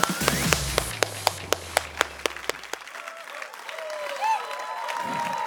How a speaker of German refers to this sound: Heute ist er da im Seal City im Kino und er wird fünfmal zu uns preachen. Lass uns einen Applaus geben für den Mike Bilwachi im Seal City.